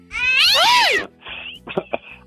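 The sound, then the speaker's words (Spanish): A cat lets out one long, loud, rising-and-falling meow, followed by a few shorter, fainter chirping mews and soft rustling. “agárrame el gato y juega con él.”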